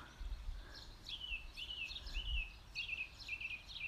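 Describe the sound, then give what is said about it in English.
A wild female duck calls in a quick series of short, high, repeated notes, fairly faint, over a low outdoor rumble with no talking. “And this is very exciting because this is the first time we've heard our wild lady duck talk.”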